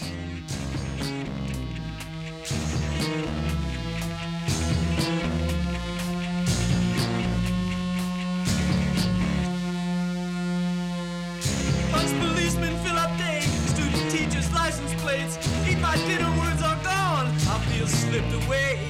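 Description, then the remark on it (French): A rock track plays loudly and continuously on the radio show Bruit Confus on 88.8 Radio Grenouille, with sustained guitar chords and a steady beat of drum hits. Brief gaps break the rhythm before it drives on again. “Ben, on, va, on, va, on va passer ce très beau morceau de, de”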